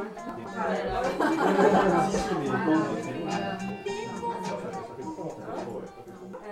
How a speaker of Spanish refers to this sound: De repente, hay ruido y gente por todas partes.